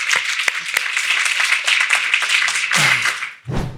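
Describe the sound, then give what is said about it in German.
A burst of steady applause, many hands clapping in a dense, crackling wash that holds at an even level for about three seconds before briefly dropping and swelling again at the end. “Finde ich auch, ist ein Applaus wert.”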